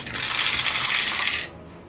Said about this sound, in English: Sounds like you're dropping dice. Yeah, uh, I'm trying to pull all of this.